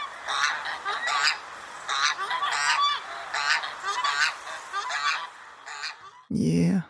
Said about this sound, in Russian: А это сухонос.